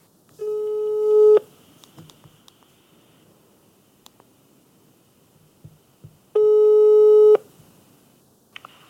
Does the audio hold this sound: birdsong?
no